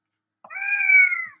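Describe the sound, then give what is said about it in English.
A single drawn-out cat meow, clear, lasting about a second with a steady, slightly nasal tone that fades at the end. No one speaks. “Kitty cat.”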